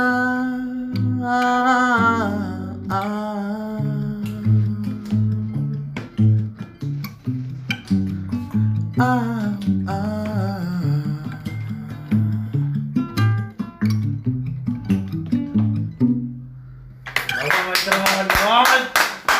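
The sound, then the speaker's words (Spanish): A song plays throughout, with a sung melody over steady low bass notes and sharp percussive taps; near the end the music gives way to a brief, bright burst of noise. “Esa canción yo ya la había escuchado, y me gustaba.”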